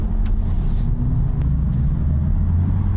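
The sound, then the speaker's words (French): An all-electric RS e-tron GT car is driving with a steady, deep rumble of road and drivetrain noise, continuous and fairly loud throughout, with a few faint high clicks and no voices. “Et puisqu'on parle de cette RS e-tron GT, prenons le volant de cette voiture qui, déjà, quand elle passe dans la rue, vous n'avez que des pouces levés, que des pouces levés”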